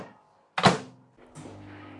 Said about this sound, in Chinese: 哎呦，那你离微波炉远点，那微波炉有声。